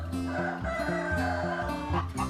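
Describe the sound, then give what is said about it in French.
Hens cluck steadily over a bouncy music bed with a stepping bass line, the clucking continuous for a couple of seconds. No one speaks. “L'ogre aimait beaucoup les poules rôties. Il en attrapait une ou deux et repartait avec un sourire gourmand.”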